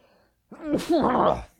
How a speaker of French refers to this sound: Oh, je vais éternuer, je m'excuse.